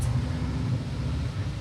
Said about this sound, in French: Le système de ventilation fait compétition.